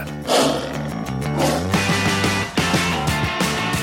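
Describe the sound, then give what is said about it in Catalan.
A tiger roar sound effect plays loudly, a deep, rumbling growl that swells and sustains for several seconds with no one speaking. “El gat que es converteix en tigre.”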